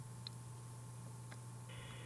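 Quiet telephone line noise with a steady hum, a couple of short electronic tone blips, then a sustained multi-tone beep near the end as the last caller's call to the programme connects.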